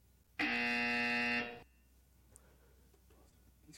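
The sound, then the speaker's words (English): A loud, harsh electronic buzzer blares for about a second with a flat, droning tone like an arena shot clock horn as a basketball shot goes in, then cuts off abruptly, leaving a quiet background with faint scattered sounds. “Right at the buzzer right at the buzzer all net, man.”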